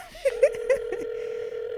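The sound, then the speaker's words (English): Phone dialing tones as someone calls a friend: a steady electronic tone runs throughout, with three short, brighter beeps near the start, fairly loud, with faint speech in the background. “we gonna call”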